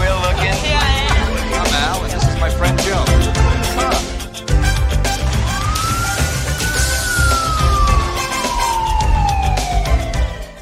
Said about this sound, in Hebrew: הסצנה הזאת נקטעת על ידי מה? על ידי אמבולנס שחוצה את הפריים עם סירנה איומה.